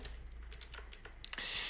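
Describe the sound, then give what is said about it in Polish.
A mechanical keyboard with a plastic case and a metal plate being handled and lifted: several light plastic clicks and taps, then a louder clatter and a brief shuffling rustle as it is shifted. No one speaks. “klawiaturę oczywiście możemy podnieść na,”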